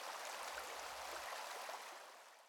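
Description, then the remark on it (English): A small river, about a 100-metre walk from a noisy road, flows steadily with a continuous bright rushing and babbling, fairly loud, with a faint low rumble briefly underneath; no voices. “Ahora podemos escuchar un hermoso sonido es el agua de un pequeño río.”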